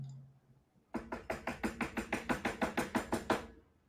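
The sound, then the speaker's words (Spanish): A rapid, steady run of about a dozen loud knocks on a door by a Jehovah's Witness, evenly spaced and insistent, following a moment of quiet low hum, with no voices. “¿ha visto la gente cagona que le toca la puerta, el, testigo de Jehová, y se escucha, ¿no?”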